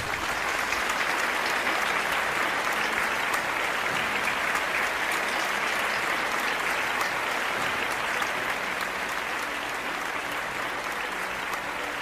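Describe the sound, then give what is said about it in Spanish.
An audience gives a strong round of applause to the King, clapping steadily for about twelve seconds: a dense, even wash of many hands at constant loudness with no clear individual rhythm and no speech over it. “Saben, dale un fuerte aplauso al Rey.”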